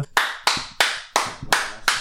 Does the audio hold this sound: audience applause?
yes